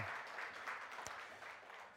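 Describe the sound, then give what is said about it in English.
An audience in an almost completely full church claps together in a steady, dense wash of overlapping hand claps that holds at an even, fairly loud level throughout, with no voices standing out. “Why don't we, yeah, let's clap for that.”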